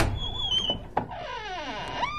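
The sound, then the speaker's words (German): A door to one of the rooms creaks open with a drawn-out, wavering squeal of hinges, followed by a soft thump and a rising, swooping creak as it swings wide. “Ich frage mich, ob die anderen Zimmer auch alle belegt sind. Zum Beispiel hinter dieser Tür hier.”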